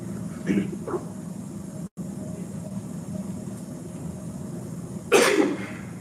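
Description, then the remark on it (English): A couple of short, muffled coughs from a person who has had a cough all morning, then a pause over low room hum before one louder, harsher cough near the end. “I, sorry, I had a cough all morning. Hang on.”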